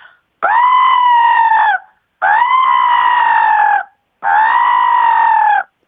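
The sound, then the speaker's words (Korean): A person imitating a magpie gives three loud, drawn-out, harsh magpie calls, each lasting over a second with short pauses between them, clear with no other sounds. “이게 까치고요.”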